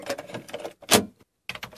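A power drill grinds into a wall in several short, uneven bursts separated by brief pauses, loud, with no voices.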